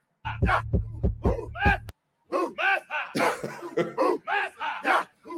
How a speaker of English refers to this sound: So if you guys don't recognize that sound, that's from um, the Black Panther. That's the battle cry from uh, the White Apes. So the gorillas